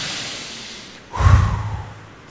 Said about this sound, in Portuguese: Quem é grato a Deus por você estar vivo? Por você estar respirando? Respira hoje, enche seus pulmões de ar.